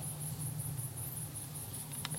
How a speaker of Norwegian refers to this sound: Det er så skönt å vandre på natten når det bare er helt stille. det enda ljudet man hører, det er syrsorna og